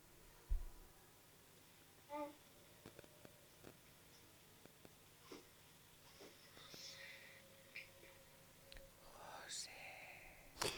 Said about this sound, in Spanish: y te encuentras una psicofonía.